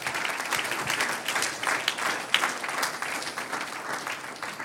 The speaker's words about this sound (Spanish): Ahora dése un aplauso.